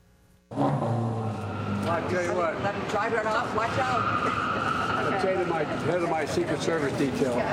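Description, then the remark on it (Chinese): The engine of an orange sports car at the Detroit Auto Show bursts into a loud, sustained rev after a brief quiet moment, its growling pitch swelling and wavering for several seconds while voices murmur underneath; US President Biden sits in the car. “坐进橘色跑车，感受引擎声。”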